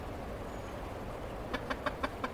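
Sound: chicken clucking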